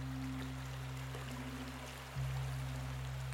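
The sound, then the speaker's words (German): Steady rushing water of a filling river in front of an old mill, under a deep, constant droning hum that drops in pitch and swells slightly partway through. No voices, just the continuous flow. “Vor der alten Mühle begann es zu plätschern und zu rauschen.”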